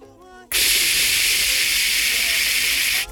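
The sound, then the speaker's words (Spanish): A brief vocal sound gives way to a loud, steady, breathy hiss, a voice imitating the static of a TV left switched on, held for about two and a half seconds before cutting off. “Se nos, había, quedado la tele prendida, Y habíamos cerrado la weá y todo, y era el plan perfecto, güey.”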